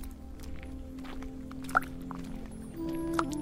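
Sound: water poured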